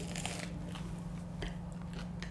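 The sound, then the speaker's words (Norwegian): Crisp crunching as someone bites into a crusty, freshly baked homemade bread roll, a few sharp crackly bites and chews over a steady low hum, no talking. “Ja, det ble bra. Den knasinga.”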